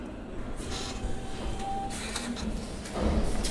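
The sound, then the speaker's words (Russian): A receipt printer whirs steadily as it prints a Sberbank receipt for paying the cost of copying archive documents, a continuous mechanical buzz with brief bursts of louder chatter and a heavier thump near the end. No one speaks. “Вот я сейчас печатаю чек.”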